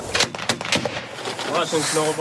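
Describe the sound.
An American-made Mark 19 grenade launcher, used by a Ukrainian army soldier of the 93rd Brigade from behind an abandoned house against Russian positions, fires three rapid, punchy thuds in quick succession, followed by a voice speaking over lingering background noise.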